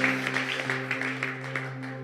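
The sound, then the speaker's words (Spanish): An audience applauding God, a dense, steady patter of many hands clapping over sustained, held keyboard chords that play underneath throughout. “¿Le puedes dar un aplauso más a nuestro Dios que ha sido bueno mientras tomas tu lugar?”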